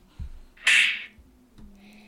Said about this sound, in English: Um, would you like to introduce your buzzer? Um, sure. My buzzer sounds like this.